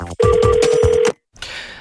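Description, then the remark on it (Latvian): A telephone rings once with a loud, steady electronic tone lasting about a second as a listener calls in to a Latvian Radio studio, then cuts off into a brief silence followed by faint line hiss. “Klausītājs zvana.”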